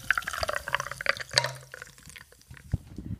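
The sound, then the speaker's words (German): Tonic water being poured into a glass, a bubbly, crackling splash with tiny popping bubbles that settles into a softer fizz toward the end. “Das ist schon so ein bisschen geil, oder? Dieses Geräusch.”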